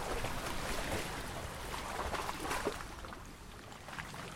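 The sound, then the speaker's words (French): Water laps and sloshes steadily against the hull of a boat in Switzerland, a continuous splashing with soft irregular slaps and a faint rushing undertone, no voices. “Écoutez le clapotis de l'eau.”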